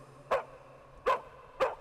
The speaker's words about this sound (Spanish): Durante algunos días, cuando por las noches se escuchaba a los perros ladrar,